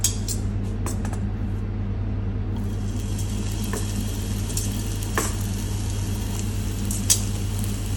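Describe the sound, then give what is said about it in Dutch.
Meatballs sizzle steadily in a frying pan, a constant crackling hiss over a low hum, with occasional sharper pops and spits breaking through. No one speaks. “Oké, ik ga nu de ballen in de pan.”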